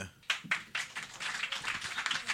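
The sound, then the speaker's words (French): An audience breaks into applause to show who knows Louis Riel, a few sharp opening claps quickly swelling into a dense, steady crackle of many hands that carries on at moderate volume to the end. “Eh, d'ailleurs, par applaudissement, qui ici connaît Louis Riel”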